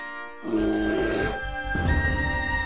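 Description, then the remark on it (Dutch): A loud, deep bear roar bursts in after a brief quiet moment and rumbles on with a rough, growling edge, briefly dipping before swelling again. No one speaks. “Ah, daar is hij weer. Ik ben blij dat hij weer opduikt, de Witte Beer.”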